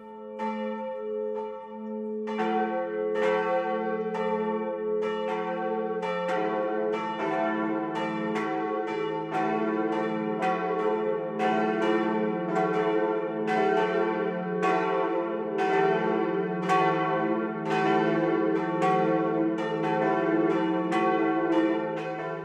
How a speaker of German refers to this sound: Das Mittagsläuten kommt heute aus Frammersbach im Naturpark Spessart zwischen Würzburg und Aschaffenburg.